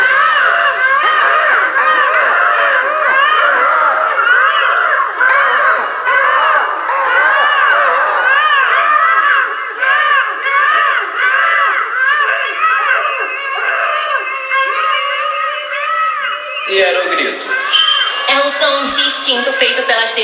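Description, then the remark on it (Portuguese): A loud, dense chorus of shrill, warbling screaming calls from several drag performers in Belém, Pará, Brazil, used to identify, locate and call one another, overlaps continuously, then breaks into a harsher, higher burst of shrieks near the end. “Gatos miam, cachorros latem, demônias belenenses e ero gritam.”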